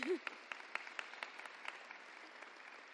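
An audience claps steadily for a few seconds, a dense patter of hand claps with some sharper accents, softening gradually toward the end. No one speaks over it.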